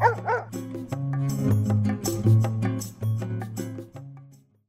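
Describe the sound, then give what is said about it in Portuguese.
A small dog gives two quick, high-pitched yips right at the start, followed by steady tonal music that carries on for several seconds before fading out. “o doguinho carioca.”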